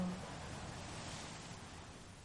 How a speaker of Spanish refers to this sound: tus oídos escuchando música, esa música de las olas al romper lentamente en la orilla. Eres capaz de percibir incluso la espuma, cómo se va deshaciendo al llegar a la orilla y cómo se retira